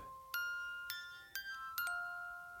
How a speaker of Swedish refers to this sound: Ehm, det är som en... Eh, en eh, tänk er en speldosa, men den sitter inte fast i något, utan man ser liksom all mekanik. Nu ska vi se här, hur låter den? Jag snurrar här på en vev.